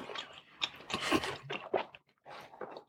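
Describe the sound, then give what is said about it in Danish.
Wet chewing of potatoes, with irregular crunchy bites and mouth sounds over a few seconds, a brief pause, then more chewing. No talking. “… synker. Jeg har lyst til at smage kartofler.”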